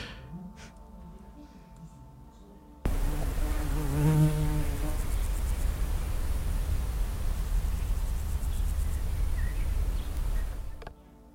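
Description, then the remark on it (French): A bee buzzes loudly, its drone rising and wavering for a moment, set against a steady hiss of background noise that runs for about eight seconds before cutting off. “Moi, franchement, je sais que c'est une abeille parce qu'il y a marqué ah, abeille.”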